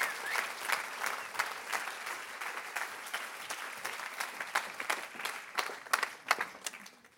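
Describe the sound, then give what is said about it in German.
Steady audience applause for two interview guests fills the whole stretch, a dense patter of many hands clapping at an even level, with a few sharper individual claps standing out toward the end. “Geben wir Ihnen beiden einen grossen Applaus.”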